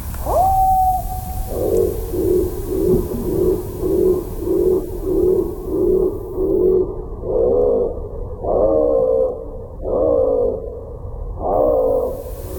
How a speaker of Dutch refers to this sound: Zo, dat is de pimpelmees. Een hele mooie eh, hoge zang, heel herkenbaar. hij zit constant eh, ook altijd in de, in de stad. Maar vertraagd klinkt hij zo.